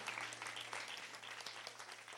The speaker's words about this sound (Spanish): Dan un fuerte aplauso al Dios de las generaciones, al Dios que en esta mañana está aquí en este lugar.